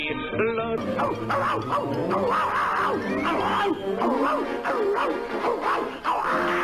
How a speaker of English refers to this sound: that was, that screaming dog, of course